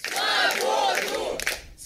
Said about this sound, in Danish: Freedom, they chanted. Ja, altså de råber frihed, de her, den her unge gruppe mennesker, der klapper og hæpper